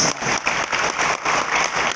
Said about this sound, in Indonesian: Nah saudara kalau kita mau tepuk tangan ayo tepuk tangan